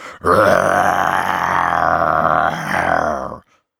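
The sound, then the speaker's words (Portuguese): A person imitates a big bad wolf's roar with one long, loud, rough growl that holds steady for about three seconds, surges once near the end, then cuts off. “Ele resolveu meter o terror, mandou o seu urro mais terrível de lobo mau.”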